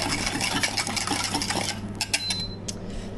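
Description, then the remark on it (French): A steady rush of half the boiled hot cream and milk poured into a bowl onto whitened egg yolks and sugar, followed by quick clinks and scrapes of a utensil stirring against the bowl's sides, fairly loud, with no one speaking. “Donc là on verse la moitié, on mélange bien.”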